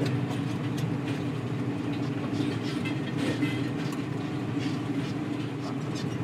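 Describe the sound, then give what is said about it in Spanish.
A tractor engine drones steadily in a field in Córdoba in early August, a continuous low rumble with a rattling mechanical texture that holds at an even loudness throughout, with no voices. “Todo esto lo estábamos hablando encima de un tractor a principios de agosto en Córdoba.”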